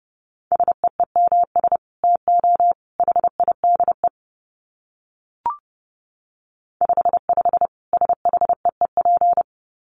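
Rapid Morse code at 30 wpm: a single steady mid-pitched tone keyed into quick dots and dashes, in two runs separated by a pause with a brief click.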